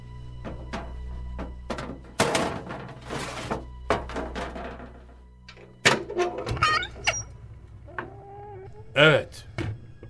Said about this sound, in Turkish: Ee, kapıyı artık açabiliriz. Aç.